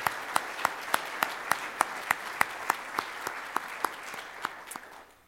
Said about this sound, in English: So let's give them a round of applause this morning.